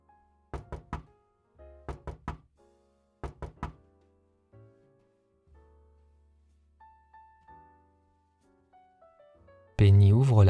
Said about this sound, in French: Sheldon toque trois fois à la porte suivi du prénom de Penny.